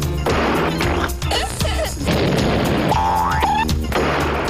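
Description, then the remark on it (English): A busy burst of cartoon sound effects: loud crashes and smashes, a springy boing, and a rising whistle-like slide, all packed together with no pauses for about four seconds. “Boing, boing.”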